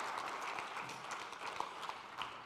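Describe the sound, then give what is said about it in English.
An audience applauds three people who had helped at the front, with steady, dense overlapping hand claps forming a continuous wash of sound that holds at an even level throughout, moderately quiet. “Give them a round of applause.”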